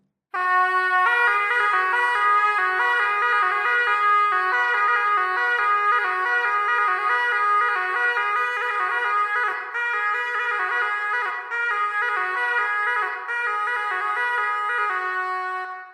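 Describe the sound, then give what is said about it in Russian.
A shepherd's wooden horn with three to six finger holes plays a slow melody of long, loud, brassy sustained notes that step between pitches, sounding almost continuously for about fifteen seconds with no voices. “тогда как на лиру, имеющем от 3 до 6 игровых отверстий, можно было играть развернутые мелодии.”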